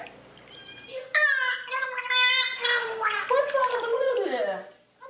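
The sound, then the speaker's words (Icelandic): A dolphin, one of three kept in a dolphin house, makes squeaky, warbling, speech-like vocalizations, imitating the rise and fall of a human voice. The calls run continuously for about four seconds, fairly loud, ending in a falling tone. “Það voru þrýr hafrungar í hafrungósunu. Sissi, Pamela og Pítur.”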